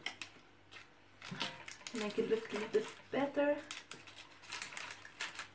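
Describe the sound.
Papery crinkling and rustling as a sheet of parchment baking paper is handled and shifted about, with irregular crisp bursts while a person talks quietly over it.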